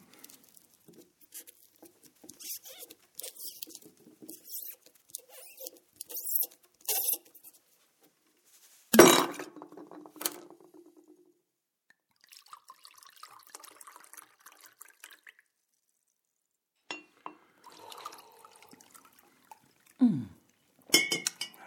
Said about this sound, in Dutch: Ik heb van mijn broer een flesje wijn gehad. Zullen we dat eens openmaken? Ja, lekker. Eens kijken. Het is een overcomplete neuf du Pape die hij ergens op de kop heeft weten te tikken.